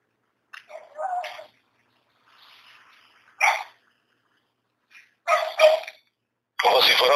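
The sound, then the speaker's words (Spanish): Dogs bark in several short, irregular bursts separated by brief pauses, moderately loud, with a faint murmur in one of the gaps. “Dile, ¿por qué están ladrando esos perros?”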